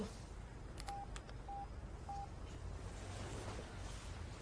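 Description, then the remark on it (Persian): Three short, evenly spaced keypad beeps as a phone number is dialed on a mobile phone, standing out over a steady background hiss and low rumble. “تو شماره بگیر بده من بعد گوش کن ببین چی میخوام بگم”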